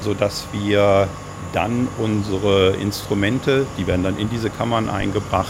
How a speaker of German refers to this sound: In diesem Bereich, wo wir uns jetzt befinden, sind die Pumpen angebracht, die dafür sorgen, dass die Kammern leer gepumpt werden